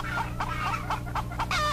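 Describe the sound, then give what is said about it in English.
A chicken clucks in a quick, uneven string of about six short, nasal bursts, fairly loud, over a steady low background hum. “The paragon of the chicken house.”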